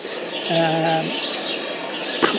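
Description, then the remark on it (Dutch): Outdoor ambience at the Bioparco zoo in Rome, Italy, with a steady wash of background noise, and a low, wavering bird call resembling a dove's coo for about half a second, followed by a brief sharp click near the end. “Nou, zoals je misschien op de achtergrond hoort, ik zit op een, bankje in Bioparco in, in Rome.”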